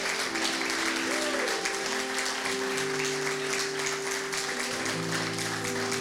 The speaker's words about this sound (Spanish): Así que da un aplauso fuerte a Dios. Con esa fe loca.